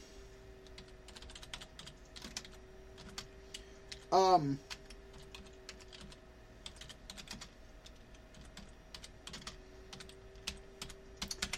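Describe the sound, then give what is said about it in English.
Steady rapid clicking of fingers typing a search into a search engine on a computer keyboard throughout, moderately quiet, with a brief hum-like voiced filler from a person partway through. “Um, let me put it in the search engine real quick because it'll come up.”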